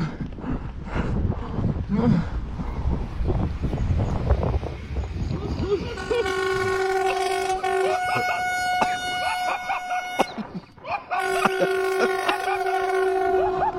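A train rumbles as it approaches, then its loud multi-tone horn blares in two long blasts, the first lasting several seconds, a brief gap, then another as it passes.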